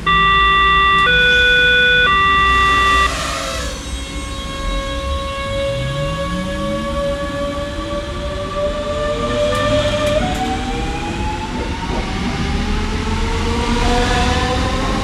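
An electric S-Bahn commuter train serving as a vaccination train runs steadily, opening with a few stepped electronic tones, then its motors whine and shift pitch as it accelerates over a continuous rumble of wheels on track.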